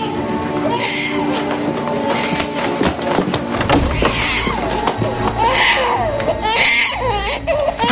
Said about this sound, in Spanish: Carolina se acerca a una habitación donde llora su hija.